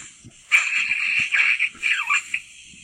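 Someone takes a dab hit: a close, steady bubbling gurgle with an airy hiss, pulsing in short surges for about two seconds before trailing off.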